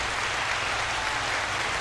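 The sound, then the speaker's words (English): Steady applause, a dense, even crackle of many hands clapping at once, holding a constant level throughout with no voices over it. “First, I want to clap it up for him.”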